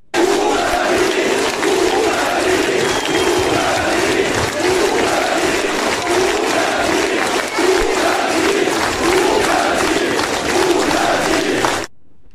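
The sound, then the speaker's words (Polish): A large crowd of Belarusian factory workers on strike chants in unison at a protest, with a steady, repeating rhythm, loud and continuous for about twelve seconds, voices massed together outdoors before cutting off abruptly. “Tak to właśnie brzmiało, tak skandowali pracownicy białoruskich fabryk e, podczas dzisiejszego e, protestu,”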